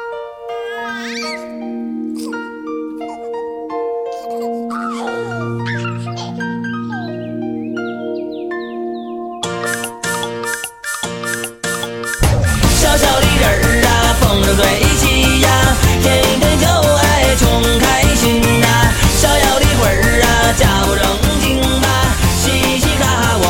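An upbeat pop song played by a band opens with sparse, pitched meowing cat-like sounds and light accents, then the full band bursts in loudly and keeps a dense, driving groove.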